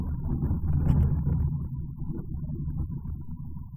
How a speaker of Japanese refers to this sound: まあまあでかいね、雷の音がしましたね。やっぱりなんかちょっとね、その盛り上がりみたいなものを感じますね。雷の音というものには。こう、部屋の中で聞いてる限りはっていう感じですけどもね。さっき少し稲光もそのカーテンの隙間から差し込んできましたね。